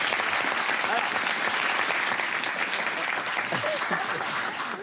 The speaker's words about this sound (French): Et on applaudit. Merci beaucoup.